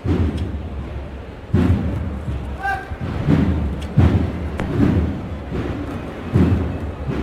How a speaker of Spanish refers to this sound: se toca el martillo, se va al cielo.